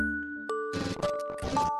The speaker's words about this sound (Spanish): ¿Oyeron eso? Es mi televisor que está encendido. También está encendido mi teléfono. Ambos alumbran casi toda mi habitación.